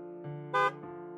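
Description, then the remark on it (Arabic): A car horn from the car behind, at a traffic light, blares in a sustained honk, swelling into a sharper, louder blast midway before settling back to a steady tone until it ends. “هرن السائق اللي وراه قطع عليه حبل أفكاره انتبه أن الإشارة تغير لونها للأخضر”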